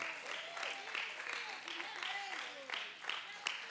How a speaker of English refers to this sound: See, just pray, just give a big hand of applause for God moving on denominations.